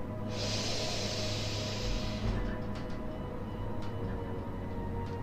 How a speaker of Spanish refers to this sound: Y ahora te pido que tomes una respiración profunda y la dejes ir en un suspiro. Vuelve a tomar una respiración profunda.